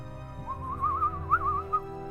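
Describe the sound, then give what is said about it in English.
A single warbling, whistle-like birdsong from a little bird rises and dips in pitch for over a second over a low, steady background hum, moderately loud. It may be a human whistling in imitation. “you start to hear the sound of birdsong.”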